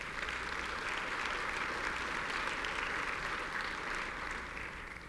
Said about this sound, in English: And you need to give yourself a round of applause for that.